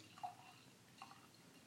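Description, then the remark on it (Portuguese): A quiet sip of wine: a couple of faint, wet slurping clicks spaced about a second apart over a hushed background, with no talking. “E hoje, em vez de dar pausa pra goles d'água, eu vou estar tá dando pausa pra goles de vinho.”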